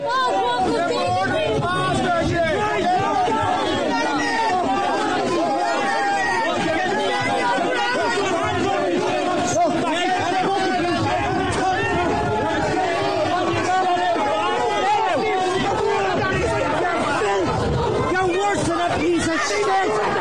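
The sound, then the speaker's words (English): A loud, agitated, hostile crowd shouts and jeers over one another in a dense, continuous wall of overlapping voices, heckling politician Michael Healy-Rae as he walks out of Leinster House escorted by Gardaí, with no single speaker standing out. “Um, to protect him from a very, very hostile crowd.”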